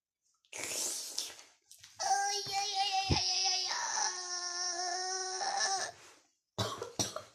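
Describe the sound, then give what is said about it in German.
A coughing fit: a harsh burst, then a long, strained, raspy wheezing stretch with a tonal rasp, ending in two more sharp coughs. No talking. “Ich musste husten.”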